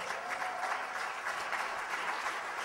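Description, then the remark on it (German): An audience applauds for Jesus steadily, a dense, even wash of many hands clapping at fairly constant loudness with no voices standing out. “Dankeschön, der Applaus, der gehört wirklich Jesus.”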